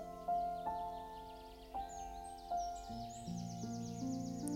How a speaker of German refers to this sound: Du siehst ganz viele verschiedene Bäume, Birken, Kiefern, Eichen, ein wundervoller Mischwald aus Laub- und Nadelbäumen. Du hörst die Vögel zwitschern.